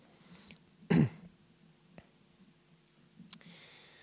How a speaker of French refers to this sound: Est-ce que ce serait possible d'avoir un peu d'eau, s'il vous plaît Parce que sinon, je vais commencer à tousser.